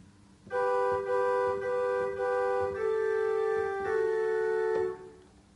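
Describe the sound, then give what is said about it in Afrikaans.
Soprano and alto parts of a hymn played together on a keyboard as sustained two-note chords, read line by line from sheet music while learning the hymn, moving slowly through four or five steady changes, clear with no talking. “Nou sit ek dit saam.”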